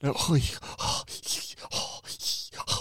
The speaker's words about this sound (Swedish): Fan vad obehagligt. Vad fan är det som låter? Jag har glömt stänga av dockan.